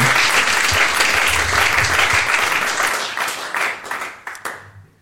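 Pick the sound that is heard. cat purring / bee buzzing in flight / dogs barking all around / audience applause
audience applause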